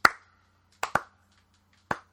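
A few hand claps, four sharp smacks in all, slow and unevenly spaced, with two landing close together in the middle. No one is talking.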